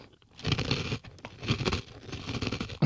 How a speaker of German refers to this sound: wenn man das mal so hört. Also es knuspert echt schön.